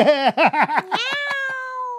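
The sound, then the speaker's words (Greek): A cat named Paspartou gives a quick run of four or five short, chirpy meows, then stretches into one long, steady meow, loud, with a few faint clicks underneath. “Κάτι θα υπάρχει σε εκείνο το ράφι και νιαουρίζει έτσι.”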